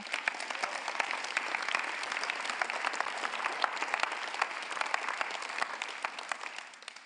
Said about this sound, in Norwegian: Du må gjerne klappe.